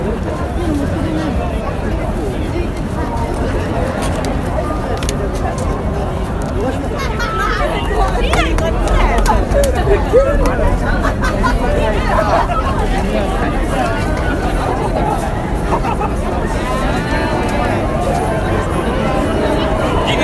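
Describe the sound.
Dense crowd hubbub fills a busy street crossing in Shibuya, Tokyo, Japan, many overlapping voices murmuring steadily with low traffic rumble underneath, continuous and fairly loud throughout.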